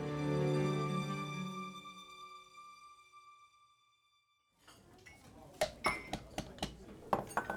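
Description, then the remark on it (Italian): A ringing tone fades to silence, then ambience begins in a town bar where a man is with friends, with a soft background murmur and a series of sharp clinks of glasses and cutlery. “Mario Colombo è al bar della città con degli amici.”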